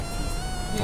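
A steady electronic aiming tone from a biathlon rifle, used in a shooting session for blind participants, hums without a break as the shooter finds and holds the continuous tone; a thin, buzzy whine with layered harmonics at an even, moderate level. No one speaks.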